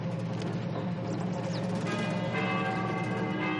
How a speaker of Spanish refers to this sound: Finalmente, Cowboy tañe la campana a la vez que arriba, Gutowski sonríe.